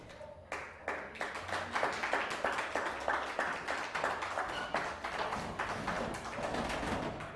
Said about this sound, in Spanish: Ya tendría que dar un aplauso al santo bendito sea, porque híjole.